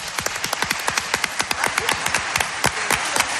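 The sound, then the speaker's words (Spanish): An audience applauds a group of women, many hands clapping in a dense, steady crackle with sharp individual claps standing out, fairly loud throughout with no voices. “Muchas gracias, un aplauso para ellas.”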